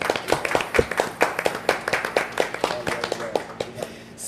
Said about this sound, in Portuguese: vamos encerrar com uma salva de palmas pro homem?